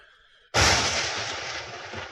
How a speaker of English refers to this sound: What other lightning strikes did we have?